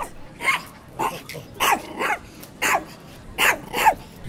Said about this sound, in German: Jetzt bellt auch noch das Bonsai-Hündchen.